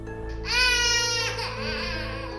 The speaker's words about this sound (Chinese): 正当我趴在床上的时候，耳朵旁边隐隐约约。听到昨天晚上那种可怕的小孩哭声。